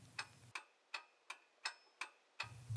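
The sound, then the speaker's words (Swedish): An old clock ticks steadily, seven crisp, evenly spaced ticks with a faint metallic ring, fairly quiet against a low background hum that drops away mid-clip. “lyssnar på det gamla tickandet ifrån den gamla klockan och fryser om sina gamla fötter.”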